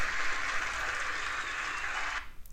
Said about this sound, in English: Can we just give this woman a round of applause? clap it up.